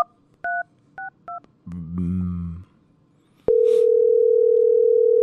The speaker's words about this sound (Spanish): ahí le estamos marcando al otro, ¿verdad? A la siguiente llamada.